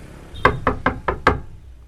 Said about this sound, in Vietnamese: ôi giời cái gõ từ từ chứ